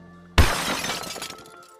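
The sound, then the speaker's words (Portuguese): Glass shatters with a sudden loud crash, followed by a brief tinkling scatter of shards that fades over about a second and a half. No voices. “Meus vizinhos já quebraram a casa brigando.”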